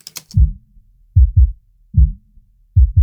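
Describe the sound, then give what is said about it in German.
A low-pass filtered kick drum plays alone, with deep, muffled thumps stripped of their high end. Loud single and doubled hits form a steady pattern, preceded by a brief click at the start. “Nur noch die Bassdrum bleibt übrig.”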